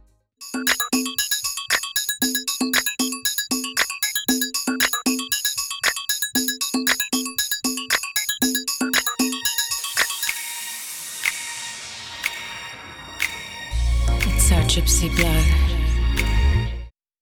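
Crisp finger snaps click in a steady, repeating rhythm over bright, chiming music; the beat then dissolves into a shimmering wash before a loud, low droning passage ends the mix.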